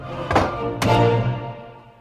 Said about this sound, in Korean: 이마가 훤히 드러나 있는 백발의 남자 시드릭이 화장대 앞에 앉아서 거울을 들여다보다가 화장을 하기 시작한다. 시드릭은 이내 화장품들을 서랍 안에 쓸어 넣어버린다.